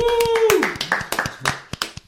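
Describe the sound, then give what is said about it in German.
A loose patter of hand clapping, a dozen or so sharp, irregular claps, follows a voice's high whoop that slides downward at the start and then fades out. “Weißt, du, weißt du jetzt nicht, welches Klatschen mehr am Ende?”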